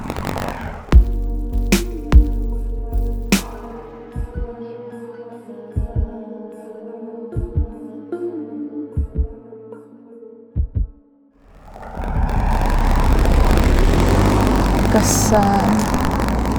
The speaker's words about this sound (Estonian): auto, vau. noh, tihe liiklus täna küll on.